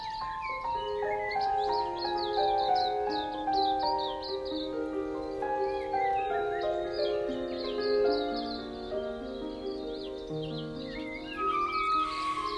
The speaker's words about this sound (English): The flute music you're hearing is me with my friend pianist